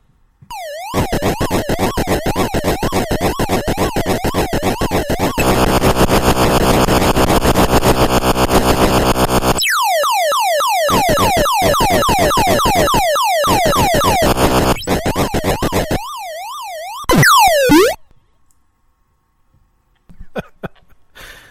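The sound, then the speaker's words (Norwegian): Atari 2600 video game sound effects from a labyrinth game: loud, buzzy electronic tones with rapid warbling pitch sweeps, a harsh sustained drone, and choppy repeated bleeps, then a sudden cutoff into near silence. “Det er, Atari, 2600, eh, det er det Du får, det er Atari godlyd, det der. Du får ikke mer Atari.”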